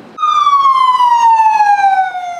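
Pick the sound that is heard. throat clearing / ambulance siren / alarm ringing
ambulance siren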